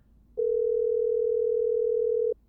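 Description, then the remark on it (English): One steady, mid-pitched telephone ring tone sounds loudly for about two seconds as a call is placed to a Barnes and Noble bookstore, starting and stopping abruptly, with no voices present. “Let's call a bookstore now to see how they're handling Pompeo fever.”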